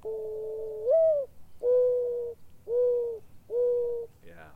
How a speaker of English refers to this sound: I had to let that one finish. Yeah, so beautiful, isn't it? the mourning dove, you know, M O U R N, because it sounds kind of mournful. Yep and it's one that everybody should know. Yeah. They're really calling right now.